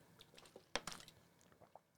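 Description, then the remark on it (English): A quiet sip of water: a sharp wet click and a couple of soft gulping, swallowing sounds in quick succession, with faint mouth noises around them and no talking. “The question that, frankly, I got to have more water before I go through because it's going to be oof.”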